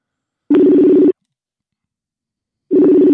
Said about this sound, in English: And uh, I'm trying to get him on the phone right now. I hope he finished lunch because we just had a pre call. Let's give it a try.